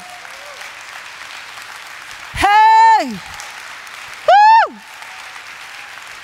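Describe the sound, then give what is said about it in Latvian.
A crowd claps steadily throughout as applause for the Lord, a dense even patter, while a man's voice rings out twice with loud, drawn-out shouts over the applause. “Dosim kārtīgs aplausus tam kungam.”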